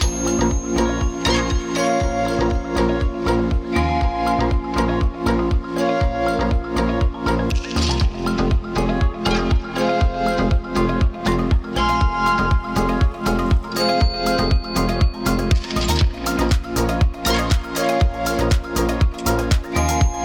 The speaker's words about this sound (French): Des bruits de portes, de parquets, de serrures, d'horloges, des sons de clavecin ou d'orgue, des instruments qu'on trouve dans les salons du château et puis il a mélangé tout ça pour composer ce morceau.